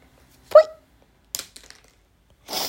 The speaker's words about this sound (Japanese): ごめんなさい。勢いよく鼻をすすってしまいましたが。